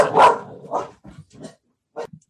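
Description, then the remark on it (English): A dog barks: a loud opening bark, then a few shorter, quieter barks and whimpery yips with brief pauses between them. No one speaks. “I got a dog.”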